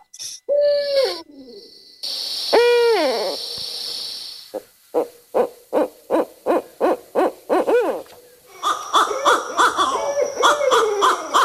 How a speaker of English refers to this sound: a couple different owls, all barred Is that just one bird? No, it's a couple of them, and I think this one, what you're hearing now is juveniles. They're probably begging for food, but they make a lot of different sounds.